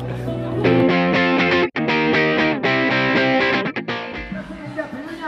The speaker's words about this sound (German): Lassen wir dich jetzt ganz schnell zu deiner favorisierten Band. Die gerade spielen im Hintergrund.